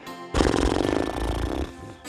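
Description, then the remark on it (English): A voice imitates air rushing out of a balloon: a loud, raspy, sputtering blow lasting over a second, buzzing and fluttering, then tapering off into a quieter breathy tail. “Now imagine releasing the air as you make a balloon sound.”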